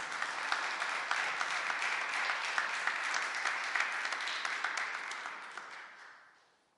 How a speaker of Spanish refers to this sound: ¿Cuántos pueden orar, Señor, en esta hora? Denle una ofrenda de palmas, Rey de Gloria.